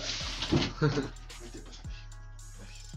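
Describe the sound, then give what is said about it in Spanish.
A pet dog whimpers in a couple of short, moderately loud whines, followed by quieter background noise with a steady low hum; no one talks over it. “Este, permíteme le, hablo, hablo a mi perro porque.”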